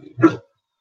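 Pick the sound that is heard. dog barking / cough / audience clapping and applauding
dog barking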